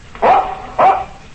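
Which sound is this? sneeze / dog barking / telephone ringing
dog barking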